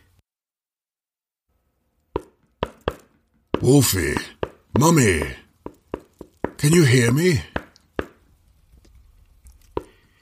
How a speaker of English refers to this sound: Igor was banging on the wall where the door had been just a few seconds ago, but he could tell by the solid thunk that wherever Wolfie and Mummy were, it wasn't on the other side of the wall.